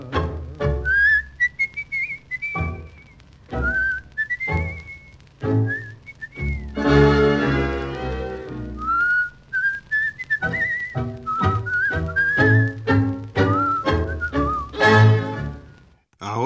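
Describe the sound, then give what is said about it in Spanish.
A person whistles a tango melody in clear, sustained phrases, carried over a full instrumental accompaniment with a steady bass that plays throughout. “y un bajo meditabundo va silbando esta canción.”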